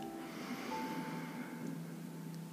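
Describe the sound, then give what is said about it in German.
Soft, slow breathing gently in and out through both nostrils, a steady airy hiss that rises and eases without pause, quiet, with a faint sustained tonal hum underneath and no talking. “Dann kannst du deine Hand senken und ganz sanft ein und aus, wieder durch beide Nasenlöcher atmen.”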